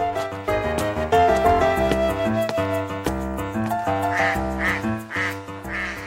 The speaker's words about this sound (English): Quack, says the duck.